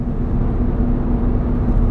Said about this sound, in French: Si vous entendez beaucoup de bruit dans ma voiture